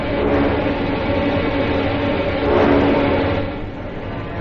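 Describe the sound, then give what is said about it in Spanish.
The heavy iron gates of the Roman Colosseum amphitheater, in 82 AD, grind open under an overcast sky with a loud, continuous metallic rumble that fills the whole moment, swelling briefly toward the middle before settling back to a steady scrape. “Un cielo encapotado se cierne sobre el anfiteatro mientras abren los portales de hierro, dejando escuchar, en macabra dualidad, un himno cristiano y rugido de piedras.”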